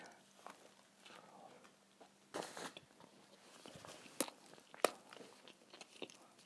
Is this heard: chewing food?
yes